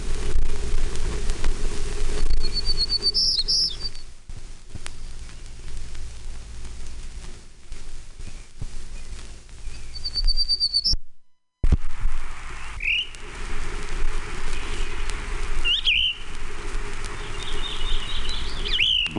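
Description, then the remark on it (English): A Townsend's warbler sings several short, high, buzzy phrases spaced a few seconds apart over a steady background hiss, with no one talking. “Two. Townsend's Warbler.”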